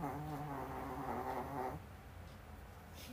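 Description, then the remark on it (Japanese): A pet dog whines through its nose, one sustained, slightly wavering nasal whimper that lasts a couple of seconds before giving way to quiet background noise. “すいませんあの今の声はですねうちのねワンちゃんの鼻の鳴った音でした”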